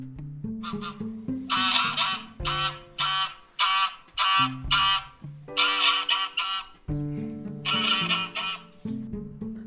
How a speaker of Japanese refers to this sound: 橋をちょうど渡ったらレモン畑に入れるっていうちょうどその橋とレモン畑の境のところですよね。で、そこに白い大きなガチョウが1匹いたんです。ガチョウですよ、ガチョウ。